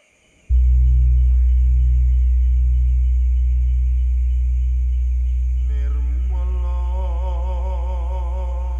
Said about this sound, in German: Im javanischen Mythos wird der Gong als das Instrument der Götter beschrieben, um im Klang das Göttliche selbst zum Ausdruck zu bringen.